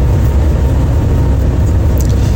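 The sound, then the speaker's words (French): A steady, loud low rumble of a bus engine heard from inside a moving bus travelling at night from Busan airport toward Tongyeong, a constant droning hum with no voices. “Euh, On est parti à 21h45 de l'aéroport de Busan, la direction Tongyong. Euh, c'est long, il fait froid dans le bus en plus là.”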